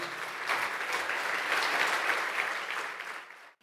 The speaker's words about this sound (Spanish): Dele fuerte ese aplauso al Señor.